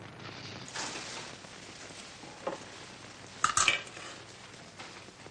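A woman begins eating and puts cutlery into her son's hands: quiet clinks and scrapes of cutlery against dishes, with a cluster of brighter metallic taps near the end over a soft background. Nobody speaks.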